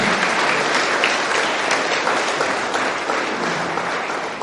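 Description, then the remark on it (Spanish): A crowd applauds children who came that day, a dense, continuous wash of many hands clapping steadily for several seconds, fading slightly at the end. “Eso, vamos a darle un aplauso a estos niños de hoy que vinieron.”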